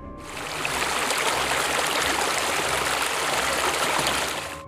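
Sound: flowing stream water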